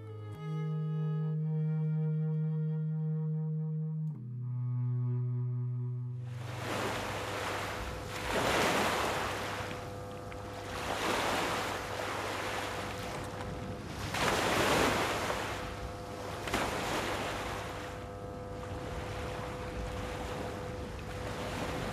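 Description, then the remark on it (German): After a few seconds of low, sustained tones, ocean surf rushes in: waves break and wash ashore in repeated loud surges every few seconds, with a steady roar between them. The surf is heard in the radio play 'Tristan da Cunha oder die Hälfte der Erde', after Raoul Schrott's novel. “Vieles andere aber hat die Brandung in Stücke zerschlagen.”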